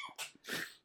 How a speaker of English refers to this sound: Bless you, babe.